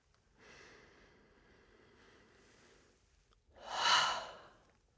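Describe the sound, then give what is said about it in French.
A soft, drawn-out deep breath in through the nose, then a brief pause and a strong, airy exhale through the mouth that swells and fades, as part of a breathing exercise. No one speaks. “Et relâchez par la bouche l'air sans trop réfléchir. Une deuxième fois. Et une troisième fois.”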